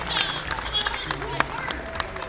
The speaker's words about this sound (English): Let's give our volunteers a round of applause.